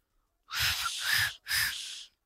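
Two breathy blasts of air from an attempted finger whistle, made with fingers in the mouth and lips folded over the teeth, mostly hissing rush with only a faint hint of a tone. Each lasts under a second, with no talking.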